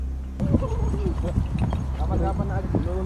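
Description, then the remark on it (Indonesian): Horse hooves clip-clop in a steady rhythm alongside the bright jingle of bells typical of a royal carriage, fairly loud over a busy background with indistinct voices, recorded on video early in the morning while hiking up a mountain toward post 4. “Di dalam video itu, kedengaran suara kuda sama suara kerincingan khas kereta kencana.”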